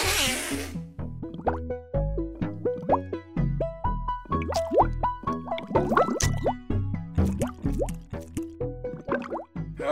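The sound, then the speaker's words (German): A pull-chain toilet flushes as the cord hanging above it is pulled long: a brief rush of water, then a steady stream of resonant plops and gurgles as water runs and refills the tank, with no voices. “Spülen nicht vergessen, lange ziehen, sonst kommt zu wenig Wasser. Über dem Klo baumelt eine Schnur. Da ziehst du dran.”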